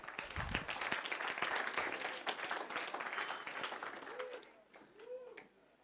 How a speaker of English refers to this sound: You don't have to clap.